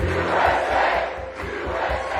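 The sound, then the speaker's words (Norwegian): A dense, excited crowd of hundreds of people packed into the ballroom at Mar-a-Lago, Trump's luxury estate in Florida, roars and cheers continuously, a loud wash of many voices shouting together with no single speaker standing out, swelling slightly near the start and end. “november, og i ballsalen på Mar-a-Lago, Trumps luksuseiendom i Florida, står hundrevis av oppglødde mennesker tett i tett.”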